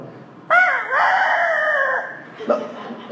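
A rooster crows once, loud, a drawn-out cock-a-doodle-doo lasting over a second, followed by a brief clucking note. No one speaks.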